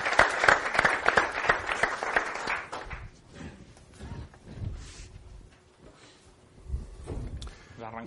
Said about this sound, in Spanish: Bueno, agradecer a todos los patrocinadores que facilitan el evento y sobre todo os pediría un fuerte aplauso para, para los organizadores porque sin ellos no estaríamos aquí.